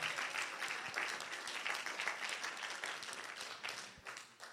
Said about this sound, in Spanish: Den un aplauso fuerte a Jesús por su palabra.